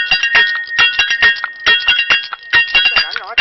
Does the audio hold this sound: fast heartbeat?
no